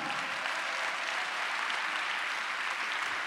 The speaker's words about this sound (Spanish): Denle un aplauso a Cristo, hermano.